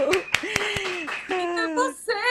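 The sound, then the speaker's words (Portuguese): Four quick, sharp hand claps from a lone clapper in a studio, not a crowd, mixed with a voice speaking in drawn-out, sing-song tones that continues after the claps stop. “Merece uma salva de palmas daqui, minha gente.”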